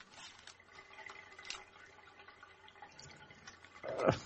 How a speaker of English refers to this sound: God damn Drop, it, kid. Dropped in the fucking water. Ew.